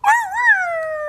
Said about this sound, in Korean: 아, 엄마 찾는 소리인데요, 여우가? 대화가 되는데.